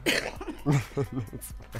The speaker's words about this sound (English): See, I'm even coughing now.